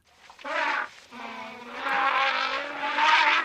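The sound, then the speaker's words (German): An elephant lets out loud, brassy trumpeting blasts: a short burst, a brief pause, then a long sustained squealing call that swells louder toward the end, with no talking. “also wir alle wissen, Elefanten, wenn die sich äußern wollen, wenn die irgendwie was loswerden wollen, dann klingt das ungefähr so.”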